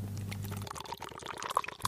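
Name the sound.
beer being poured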